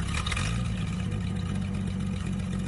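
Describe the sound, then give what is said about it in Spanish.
The engine of an old red pickup truck turns over as the keys are put in the ignition and settles into a loud, low, steady rumble, with a brief rougher burst right at the start and no voices. “Entra en la camioneta e introduce las llaves en el contacto.”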